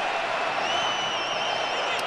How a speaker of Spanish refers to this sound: Y la gente española que trata de vitorear a sus connacionales en el terreno de juego, ¿no?